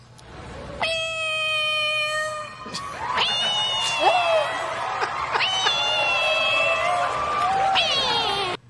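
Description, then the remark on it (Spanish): A woman's voice, the winning Miss Universe contestant from India, imitates a cat with a series of long, drawn-out meows when asked what kind of animal she could be. The meows are loud, and a crowd murmurs and cheers steadily in the background. “ese sonido de gato.”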